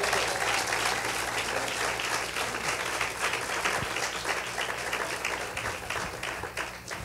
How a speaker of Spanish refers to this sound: Dale un aplauso fuerte si es para él.